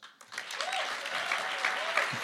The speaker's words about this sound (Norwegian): Gi henne en applaus.